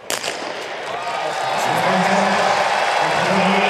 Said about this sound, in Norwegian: Lyden av et ivrig publikum har vært et stort savn hos mange.